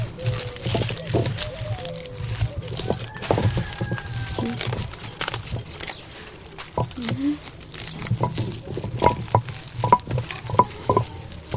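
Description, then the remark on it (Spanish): Continuous gritty scraping and crunching as leaves for tea are ground with an ancestral family stone mill on a wooden table, with irregular clicks and rasps throughout and faint voices murmuring underneath. “Usaron la piedra para triturar las hojas, ya que ellos confían que esto preserva sus propiedades.”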